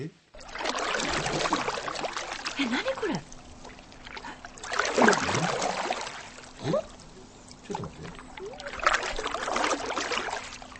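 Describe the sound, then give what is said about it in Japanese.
Three broad, rushing swishes of a paddle pulling through the water of Lake Kizaki in Omachi City, Shinshu, Japan, from someone standing on a stand-up paddleboard (SUP), each swelling and fading in a steady rhythm, with a brief spoken question between strokes. “これ大町市木崎湖の水面をパドルで漕ぐ音なんですパドルってことは中に乗っかって漕いでんのそうあれあれですかあのいわゆる最近流行りのね、うん、立ってねそうパドルの上で立ってその通り通称サップサップと言われるもの、SUP と書いてサップ”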